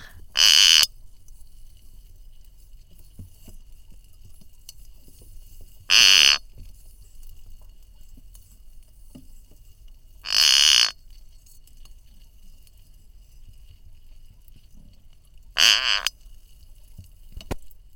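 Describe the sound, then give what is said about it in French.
Spider crab sounds recorded underwater: four short, harsh buzzing bursts spaced several seconds apart, standing out clearly over a low, steady underwater rumble, with no voices. “Eh bien, on va écouter cette araignée de mer.”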